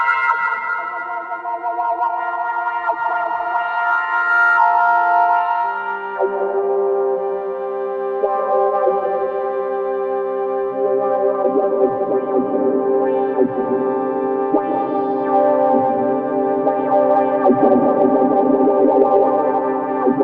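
Sustained electric guitar chords played through an Effectrode Phaseomatic tube phaser pedal with lush reverb, the swirling tone slowly sweeping and shifting over about twenty seconds, with no voices.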